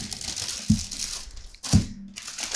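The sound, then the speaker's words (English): Paper bag crinkling and rustling steadily for a couple of seconds as pastries, including a scone and a pumpkin loaf, are taken out, with two sharper crunchy handling bursts standing out from the dry, hissy rustle. No one speaks. “Probably should have like gotten these all out of the bag before we Yeah, I'll do that really fast.”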